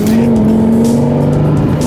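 A Lexus LFA sports car's engine drones loud at a steady, high pitch, holding a smooth sustained tone as the car drives on, with no voices.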